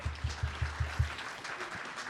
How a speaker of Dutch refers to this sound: Wat kan je goed opruimen? Nou, even een applaus hoor. Zullen wij even een applaus doen?